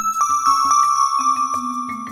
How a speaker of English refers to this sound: Make sure to listen closely for the bell.